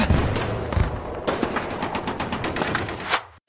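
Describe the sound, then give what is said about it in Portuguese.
A gunfire and explosion sound effect: rapid bursts of gunfire crackle continuously, with sharp repeated shots over a dense rumbling backdrop of explosions, loud, ending abruptly. “Poderia entrar agora aqui um som de bomba, tiro.”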